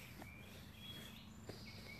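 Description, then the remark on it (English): Faint birds call back and forth, thin high chirps and whistles drifting over a quiet outdoor background with a low steady hum and a couple of soft thuds. “The birds are talking to each other.”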